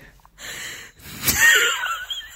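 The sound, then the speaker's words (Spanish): A voice imitates the wheezy coughing of someone who woke up coughing: a strained, raspy inhale followed by a sharp burst and a rough, whistling wheeze, fairly loud, lasting about two seconds. “tipo, se despertó y empezó a toser.”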